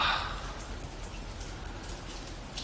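rain falling

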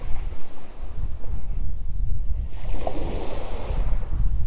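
ocean waves on beach

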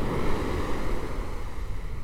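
ocean waves washing ashore

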